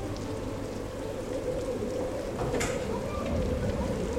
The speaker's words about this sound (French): La pièce est sombre, la tempête fait rage, la pluie et le vent battent contre les vitres fermées.